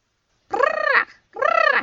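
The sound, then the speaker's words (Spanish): Two loud, raspy parrot squawks, each about half a second long with a brief pause between them, with no other sound. “Tío Conejo dormitaba cuando se presentó Tío Loro.”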